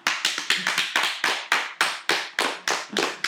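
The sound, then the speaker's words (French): Steady hand clapping, roughly a dozen sharp, evenly spaced claps in quick rhythm, fairly loud, with each clap ringing briefly before the next; no voices. “D'ailleurs, pour les années 80, moi je dis applaudissements.”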